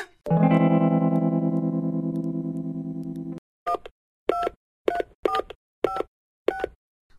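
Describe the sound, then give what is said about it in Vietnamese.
A steady, buzzy phone dial tone holds for about three seconds, then six short, sharp keypad dialing beeps follow at an even pace. The tones are clear, with no voices. “Mình gọi cho bạn suốt mà không thấy nghe máy thế”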